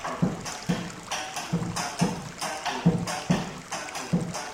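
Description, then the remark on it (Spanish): Water of the Bambucá creek splashes and gurgles against stones in a steady, pulsing rhythm of repeated surges, moderately loud, with no voices; the sound is said to resemble the rhythms of Colombian bambuco. “nos contaba en la ruta que su nombre viene de los sonidos del agua contra las piedras, que se asemeja a los ritmos del bambuco colombiano.”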